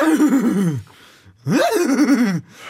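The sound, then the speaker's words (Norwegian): In an animal-sound contest, a person imitates a horse that has just woken up with two drawn-out, wavering whinny-like vocal bursts separated by a brief pause, sounding groggy and groaning, fairly loud. “Lag den beste dyrelyden. Første oppgave. En hest som nettopp har våkna.”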